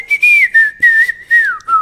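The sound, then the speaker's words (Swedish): A person whistles a short melodic tune, a clear, steady tone gliding gently up and down in several connected phrases, fairly loud with no talking. “snygg vissling ändå.”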